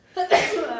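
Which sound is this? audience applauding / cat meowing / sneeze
sneeze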